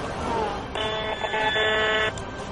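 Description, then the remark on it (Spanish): An electromagnetic radiation meter, measuring radio waves from antennas on a building's rooftop in a park at 540 microwatts per square metre, gives off a loud, steady electronic buzz lasting just over a second, a single continuous droning tone rising out of low background noise, then cutting off abruptly. “también el sonido. Nos hacemos una idea de la intensidad de la onda, que es bastante mayor que en otras partes del parque.”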